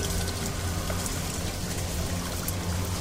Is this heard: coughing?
no